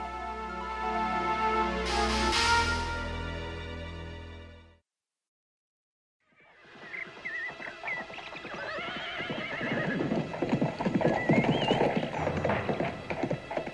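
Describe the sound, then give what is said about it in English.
A horse whinnies loudly and long, then after a brief silence a dense clatter of hooves rises, many horses clip-clopping together with occasional snorts and neighs mixed in, as a party of mounted riders is ordered to dismount and stable the horses. “Right, dismount, horses to stable, and then clean up.”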